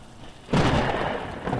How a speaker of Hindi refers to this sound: बहुत बारिश हो रही थी और बिजली भी चमक रही थी